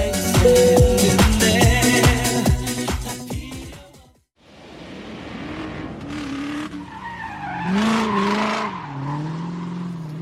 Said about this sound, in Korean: 독일의 니른베르크에 도착했습니다 여기는 세계 유수의 엄청난 자동차 업체들이 극한의 상태까지 차를 몰아붙이면서 테스트를 하는 곳으로 유명한 엄청난 자동차 트랙입니다. 아, 예, 지금 제대로 그 차량들이 엄청난 배기음을 내면서 지나갑니다.